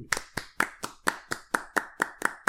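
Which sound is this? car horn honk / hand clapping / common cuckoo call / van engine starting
hand clapping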